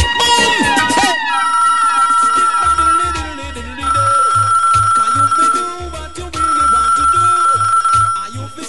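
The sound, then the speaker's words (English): A telephone line rings in long, steady electronic tones, repeating in three stretches, as a call is placed on air on DeFlavorRadio.com, over a loud music bed with a thumping, pulsing bass beat. “Get on the phone line”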